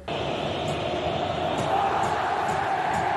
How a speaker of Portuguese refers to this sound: Enquanto o goleiro Fábio batia o tiro de meta, ó, a torcida não perdoou